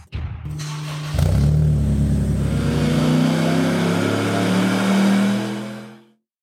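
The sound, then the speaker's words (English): The engine of a car still being built barks to life and revs hard, its deep rising drone holding loud for several seconds before cutting off abruptly, with no voices. “It's got an engine in it that runs, so it's a pretty exciting time.”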